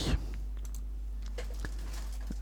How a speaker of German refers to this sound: So, Kapitelmarke mit der Maus jetzt ein Klick. Ach, ich vermisse mein Keyboard.